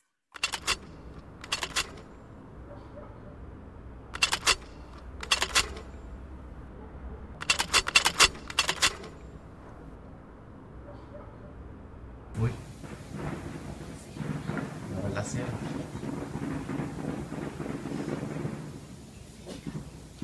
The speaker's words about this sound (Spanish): escuchemos el estreno mundial por la radio, aquí mismo, la radio UNAM, en este preciso momento de la pieza Pendulum por Ayotzinapa, música acusmática para 20.2 canales, en su versión aquí para dos canales estéreo.